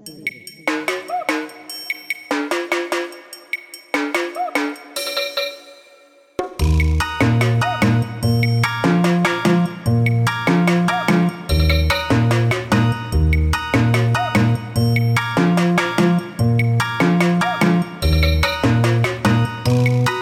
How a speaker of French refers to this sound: La sonnerie du jour est une sonnerie, si et tcha tcha tcha. Elle s'intitule La balade désespérée.